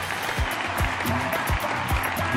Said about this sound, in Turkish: Kocaman alkışlarımızı da